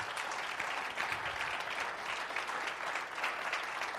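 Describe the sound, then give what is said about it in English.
An audience claps their hands together, a dense, steady wash of applause from many people that holds at an even level throughout, with no voices standing out. “I'll clap your hands under the Lord if you believe that's a good discomfort.”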